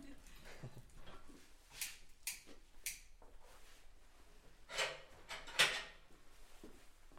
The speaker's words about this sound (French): juste, on fait du feu.